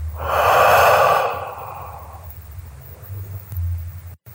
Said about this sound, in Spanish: Ahora solo cierra los ojos. Inhala. Exhala.